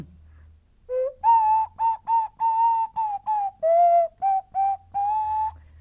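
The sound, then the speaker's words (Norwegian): A flute plays a short, simple melody of about a dozen detached notes, mostly holding near one pitch with a brief dip midway, clear with no voices. “Kan fløyta gi oss et hint?”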